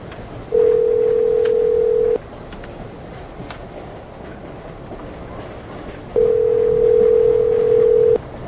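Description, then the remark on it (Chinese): A telephone ringback tone sounds twice with no answer, each steady mid-pitched beep lasting nearly two seconds, separated by a long pause, over a low background hiss. “奇怪，轩轩总不接电话。”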